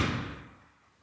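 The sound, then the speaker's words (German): A single door at a club meeting place thuds shut as a man closes it, a short low impact that rings briefly and fades out within a second, with no voices. “jetzt hat er die Tür an. zugemacht, aber ähm, hier in den Vereinstreff kommt dann ab und zu auch jemand rein.”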